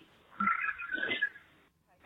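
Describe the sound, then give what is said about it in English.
A young child's voice lets out a raspy, drawn-out growl imitating a tiger's roar, 'the Coco Tiger', about a second long, followed by a brief pause and the start of another vocal burst. “that's him doing the Coco Tiger.”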